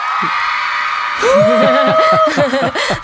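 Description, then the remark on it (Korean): A concert crowd cheers and applauds, a dense wash of clapping that swells after a second into loud whoops, yells and high-pitched shouts from many voices. “아, 콘서트인가요? 어, 박수 대박.”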